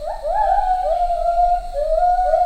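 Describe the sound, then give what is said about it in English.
A lone lar gibbon sings clear, hooting notes that swoop upward and then hold steady, repeating in a sustained run over a faint low background hum. “sound of an individual lar gibbon singing.”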